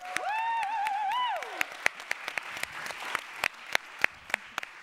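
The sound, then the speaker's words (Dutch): An audience claps steadily for about five seconds to welcome a new house band, a dense patter of many hands with sharper individual claps popping out, while a single high whooping cheer rings over the start. “Alsjeblieft, applaus alsjeblieft.”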